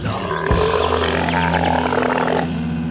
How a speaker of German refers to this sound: Richtig, das war ein Kamel.